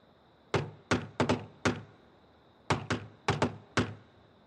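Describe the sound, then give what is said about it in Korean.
Sholto knocking twice, in a peculiar postman-like way, on the outer gate of the stone-walled Pondicherry Lodge: two bursts, each a quick, uneven run of about five sharp, hollow raps, separated by a short pause. The knocks are loud and there are no voices. “우리를 안내하던 숄토는 우편 배달부처럼 이상한 방식으로 문을 두 번 두드렸다.”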